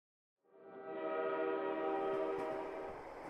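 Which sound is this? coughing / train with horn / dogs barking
train with horn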